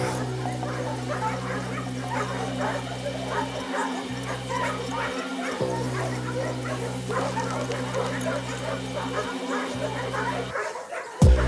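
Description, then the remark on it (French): A pack of hunting dogs, trained for the hunt, barks and yelps excitedly while tracking game, a dense continuous clamor with whimpers mixed in, under a steady low engine-like hum that cuts out briefly a few times. “J'aperçois leurs gilets sales humains, ça aboie. Complètement excité, évidemment.”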